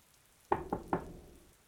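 Three sharp knocks on a door in quick succession, evenly spaced, each with a short wooden resonance, followed by quiet room tone.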